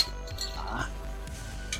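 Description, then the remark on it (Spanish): A bottle cap is shot off a Cachantún mineral water bottle by a cap-shooting bottle opener. It pops off with a quick metallic clink, followed by a brief light rattle, against a low background hum and faint voices. “Acabo de disparar el destapador.”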